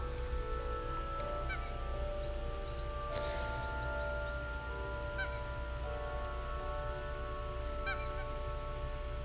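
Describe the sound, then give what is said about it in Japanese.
Ducks on the Imagawa river in Goto, Nagasaki Prefecture, Japan, calling outdoors around 7 a.m. on a Sunday: a series of short honking quacks repeating in loose bursts over steady ambient noise, with a brief rushing swell partway through. “今川のカモが鳴いてます本当にこういう自然の声なんぼ聞いてもええからなっていう感じで”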